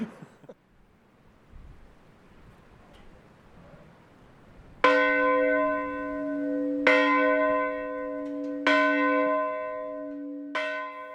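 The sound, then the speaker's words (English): A village church bell, rung every year at 2:30 a.m., the moment the Titanic sank, tolls slowly for the people who drowned: four loud resonant strikes about two seconds apart, each ringing on with a long humming sustain, after several seconds of quiet. “Every year, at the moment that the Titanic sank, 2:30 a.m., the village rings its church bell.”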